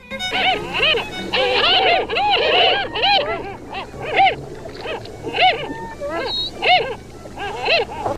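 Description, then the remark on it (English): Harlequin duck, also known as the sea mouse, giving a steady stream of high, squeaky, mouse-like calls, repeated in quick bursts, over a low constant rumble like rushing water. “By now, you may have figured out that our friend is the Harlequin Duck, here demonstrating why he's also known as the Sea Mouse.”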